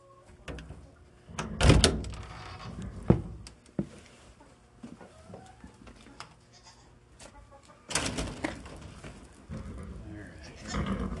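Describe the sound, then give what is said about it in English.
A horse shifts and moves, with scattered rustling, thumps and breathy bursts coming in loud clusters early and again near the end, over a quiet background with faint murmuring. “have a second horse. This one I can actually bring my microphone with.”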